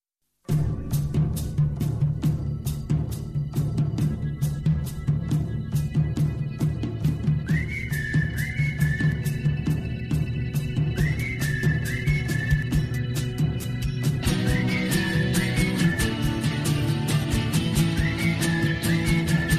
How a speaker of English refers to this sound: What do we make of the uh, the new team tune? Oh, it's great, and it? it's good to have a classic back. Yeah. South stand seats banging away.